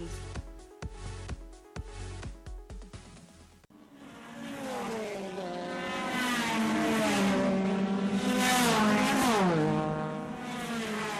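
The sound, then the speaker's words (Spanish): After a few seconds of sharp rhythmic thumps, the engine of a student-built Formula SAE prototype race car roars, its pitch climbing and falling as it revs and accelerates hard. No one speaks. “Fórmula SAE es una competencia de diseño de un prototipo de auto de carreras realizado exclusivamente por estudiantes universitarios activos.”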